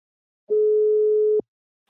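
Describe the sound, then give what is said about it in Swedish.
A single steady telephone ringback tone sounds once for about a second while a call is placed to the company Invacare, clear and alone against silence. “Nu tar vi en kort paus och ringer upp min samarbetspartner Invacare.”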